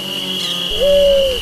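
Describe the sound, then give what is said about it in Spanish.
A single soft, mournful dove coo swells in gently and holds a low, smooth tone before fading, alone against a faint steady hum. “En eso estaban cuando comenzaron a escuchar, en el silencio de la siesta, el canto lastimoso de las palomitas lloronas.”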